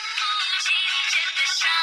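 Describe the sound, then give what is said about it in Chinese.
A mobile phone ringtone plays a bright, steady melody of high, tuneful tones, continuous and fairly loud for about two seconds with no voices. “突然，他的电话响起。”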